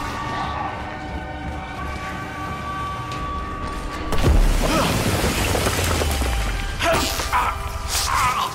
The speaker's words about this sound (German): Ein riesiger Tyrann brach durch eine Wand und packte Leon.